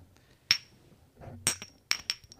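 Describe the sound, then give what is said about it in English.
Shot glasses clink together close to the mic in a toast for Día de los Muertos, four or so sharp bright taps with a short high ringing tail, spaced unevenly over a couple of seconds against a quiet background. “Wait, do the clink close up.”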